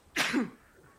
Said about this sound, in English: i'm gonna sneeze